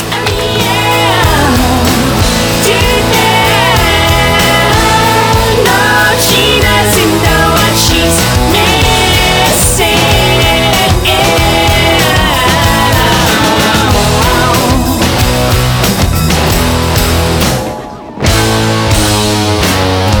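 A loud, full-band pop rock song with driving drums and guitars plays steadily throughout, cutting out for a brief moment near the end before the music kicks back in.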